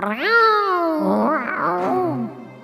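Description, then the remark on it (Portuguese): A mean-looking cat wandering about lets out a long, drawn-out meow, loud, its pitch rising and then wavering into a second, warbling yowl before trailing off. “Quando olhou para frente, viu um gato muito mal encarado que passeava por ali.”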